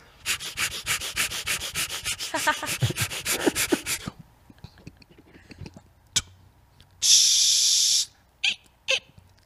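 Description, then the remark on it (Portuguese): Someone imitates tooth brushing with their mouth, a quick rhythmic run of scrubbing, hissing strokes for several seconds, then a longer steady hiss and a few short sharp bursts. “faz você escovando o dente”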